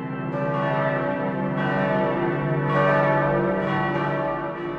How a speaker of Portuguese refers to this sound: A cidade falava pelos sinos, não era só para convocar o povo para missa, não, viu? Com ritmos e pausas diferentes, os sinos das igrejas informavam sobre acontecimentos urgentes, como um incêndio ou uma invasão estrangeira no porto.